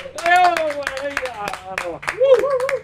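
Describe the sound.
Audience applause for a guest after a conversation: irregular, sharp handclaps crackle throughout while a loud, sustained cheering voice rises and wavers above them.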